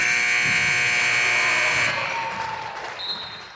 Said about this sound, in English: Woo, made it just in time for the buzzer, and I am pooped.